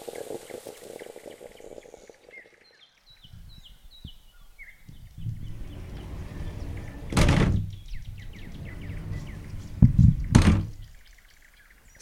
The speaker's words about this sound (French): c'est le bruit de la porte coulissante de la salle de bain.